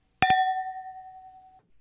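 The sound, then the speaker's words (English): Two wine glasses clink together in a quick double tap in a toast to a happy and healthy 2021, leaving a clear, bright ring that hangs and slowly fades for over a second. Fairly loud, with no voices. “I will toast to that. Cheers. Cheers.”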